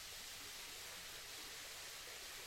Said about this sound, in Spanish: Frente a ti se despliega la belleza de la quebrada. Observa cómo el agua cristalina fluye con gracia, formando pequeñas cascadas y pozas que te invitan a entrar en ellas. Ahora sumérgete más en el sonido de la quebrada.